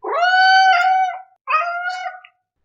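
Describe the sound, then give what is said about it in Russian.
A cat named Semyon yowls loudly twice on coming into the kitchen, a long drawn-out wail followed after a brief pause by a shorter one, both harsh and tonal with no other sounds around them. “А заходя на кухню, начинает орать так, словно я пообещал ему поездку в Лас-Вегас, а привез в Толмачи.”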